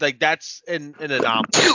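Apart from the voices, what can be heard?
sneeze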